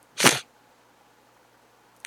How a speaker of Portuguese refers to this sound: Deve ser Covid, né? É, deve ser. Espirrou é Covid, com certeza.